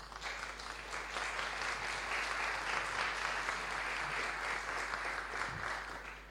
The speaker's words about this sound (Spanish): Dar un aplauso al Señor fuerte.